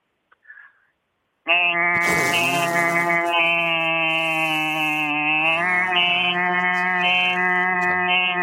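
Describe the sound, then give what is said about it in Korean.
A person imitates a cicada with a loud, sustained, buzzing vocal drone lasting about seven seconds, steady with slight wavering pitch, following a brief faint sound at the start. “매미 우는 소리 하겠습니다.”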